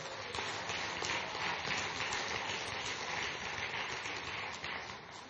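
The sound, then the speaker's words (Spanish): A crowd applauds steadily, giving applause to God, with dense clapping that holds at an even level for several seconds before easing slightly at the end. No one speaks over it. “Dale un aplauso a Dios estamos aprendiendo algo.”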